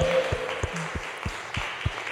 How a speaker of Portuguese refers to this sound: Aplauda ao Senhor!